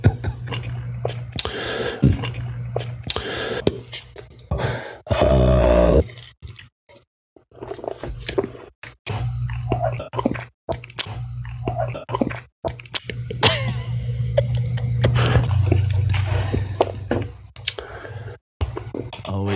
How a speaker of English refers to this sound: just keeps going. It just keeps going, folks. It's the whole episode. It's a whole episode's worth of gulps.